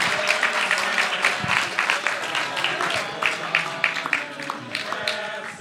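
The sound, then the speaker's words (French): An audience applauding steadily, a dense wash of many hands clapping at once, sustained throughout with a few cheers rising through the clapping, applauding on Halloween night for Peter Jackson's birthday. “Donc si la salle peut éventuellement lui chanter un petit quelque chose ou applaudir, parce que c'est quand même voilà.”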